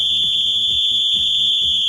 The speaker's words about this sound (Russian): Свисток, пожалуйста!